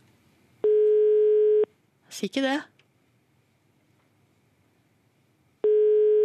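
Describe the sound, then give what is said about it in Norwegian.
A telephone ringback tone from a call to a public phone booth at Skøyen station sounds in steady one-second bursts with long silent gaps between them, and a person speaks briefly in the pause between the rings. “Høres det ut som telefonkioskringelyd? Det er iallfall en ringelyd.”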